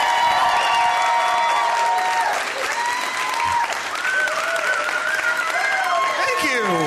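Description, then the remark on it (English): A crowd breaks into loud, sustained applause for comedian Andy Wood at the Bridgetown Comedy Festival, a dense wash of clapping that carries on without a break, with whistles and cheers rising and falling on top of it. “So we should go nuts for him.”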